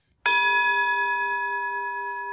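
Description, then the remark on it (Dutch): A single gong strike, signalling the end of a conversation, rings out clearly, its bright metallic tone sustaining and slowly fading over a couple of seconds with no talking. “Kijk, als de gong gaat, is het gesprek voorbij.”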